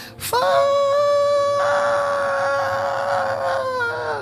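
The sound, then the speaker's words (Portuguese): A single voice holds a long, loud, siren-like wail for about four seconds at a fairly steady high pitch, mimicking an alarm, with no other talking. “Alguém vai sair como uma sirene, gritando rua abaixo.”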